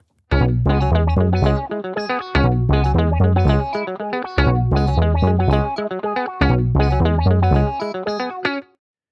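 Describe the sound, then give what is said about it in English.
Three interlocking musical riffs play together as a dense, loud, effects-heavy loop, the combined pattern repeating roughly every two seconds with no voices. “This one's a little harder to hear, but there's even a third pattern. Check out what it feels like when they're all locked in together.”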